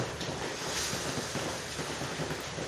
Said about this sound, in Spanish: No sé si escucháis la lluvia que cae. Seguro que no vais a sentir el frío bien heladito.